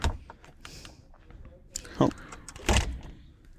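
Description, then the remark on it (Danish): A door is pushed shut, with a rustling bump followed by a heavier closing thud a moment later, amid faint indistinct voices and background noise. “Jeg lukker døren nu.”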